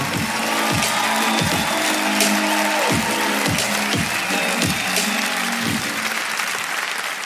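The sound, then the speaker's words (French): A large crowd at a comedy show (Montre Comédie, audio edition) applauds loudly and continuously to welcome the next comedian, a dense wash of clapping, while a steady low thumping beat pulses underneath at a regular rhythm. “Préparez-vous maintenant à accueillir notre prochain artiste et faites du bruit où que vous soyez pour Chris Mokuna.”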